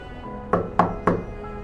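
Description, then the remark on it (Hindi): Three evenly spaced knocks on a door, sharp and fairly loud against a quiet background hum, with no one speaking. “आखिर में मैं बस आपसे इतना ही कहना चाहता हूँ कि अगर आपके घर पे आपके दरवाजे पे आधी रात को दस्तक होती है कुछ इस तरीके से”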